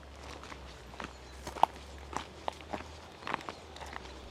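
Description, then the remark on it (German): Steady footsteps of people walking on outdoors toward a forest edge, around a dozen soft thuds and scuffs at an even walking pace over a low background rumble, with no voices. “Wir laufen weiter und wollen eigentlich eine Rast am Waldrand einlegen”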